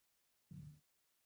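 A call line cutting out: near-total silence broken by one short, harsh burst of buzzy, garbled noise lasting about a third of a second, then dead air again.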